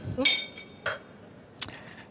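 A glass clinks with a brief bright ring, followed by two duller knocks as a microphone and the glass fall over together, each hit short against a quiet background.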